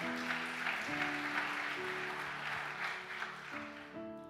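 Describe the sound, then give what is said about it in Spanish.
An audience breaks into loud, steady applause lasting several seconds, a dense crackle of clapping over sustained keyboard chords that shift pitch a few times. “pero ahora, yo ahora mis ojos te venden un aplauso fuerte.”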